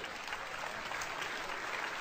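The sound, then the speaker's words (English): Steady applause from the audience members aged 45 or older, about 60 people out of an audience of 2,400 in Arizona, a dense wash of many hands clapping at an even loudness throughout, with no voices standing out above it. “How many people here by applause are 45 or older? 45 or older, applaud”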